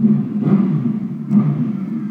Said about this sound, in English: Okay, so is this Formula One? Hey, Formula One racing. Jesus fucking Christ! If it ain't rain, it's a motorcycle.